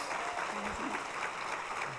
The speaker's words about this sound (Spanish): Denle un aplauso grande a Dios.